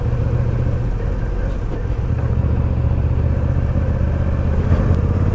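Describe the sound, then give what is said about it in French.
A custom-style motorcycle engine runs at a steady cruising pace at about 4000 rpm, a loud, continuous low rumble with constant wind and road noise and no pauses. “On cruise tranquillement à 4000 tours et à 4000 tours ça consomme rien”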